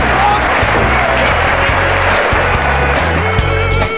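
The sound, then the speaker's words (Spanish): Loud, steady applause fills the whole clip as a dense crackling wash of clapping, with a low thumping bass line running underneath. “Da un aplauso, pega mejor.”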